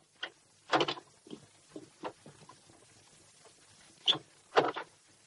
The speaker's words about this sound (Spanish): Poco después, llega a casa y abre la puerta.